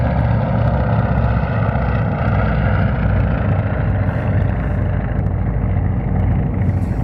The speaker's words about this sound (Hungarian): Közben itt megy éppen egy repülő fölöttem, de olyan közel, hogy majdnem leszállhatna itt a réten.